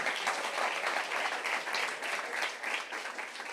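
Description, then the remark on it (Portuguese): A crowd at a religious gathering applauds the Lord, a dense, continuous wash of many hands clapping at a fairly even level for several seconds with no voices standing out. “Dê um aplauso ao Senhor por isso.”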